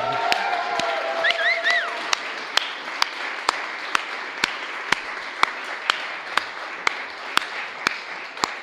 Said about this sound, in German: Und ich möchte dich bitten, wenn du eine Mama bist, dann steh doch heute Morgen mal auf von deinem Platz, stell dich mal hin und wir wollen dir einen Applaus geben. Die Mamas, wo sind die Mamas?